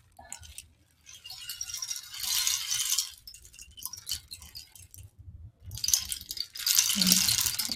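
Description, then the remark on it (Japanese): A rain stick is tilted back and forth, its beads pouring in a hissing, rattling cascade that swells, pauses, then returns in a second louder run, clear with no one talking. “palo de lluvia お披露目Live”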